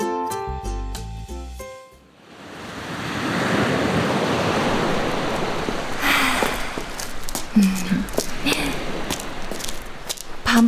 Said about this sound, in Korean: 바다는 볼 거 없을 줄 알았는데 생각보다 로맨틱하다. 바람도 선선하고.